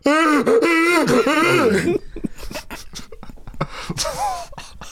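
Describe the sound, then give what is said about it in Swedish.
A single voice imitates the loud, wordless wailing and warbling noises of deaf teenagers bathing in a pool for about two seconds, then trails off into breathy, choppy grunts and snickering sounds, dry. “det var nakna döva ungdomar som hade poolparty och de lät så mycket så att grannarna”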